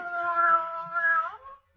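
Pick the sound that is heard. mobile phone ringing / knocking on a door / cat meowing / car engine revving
cat meowing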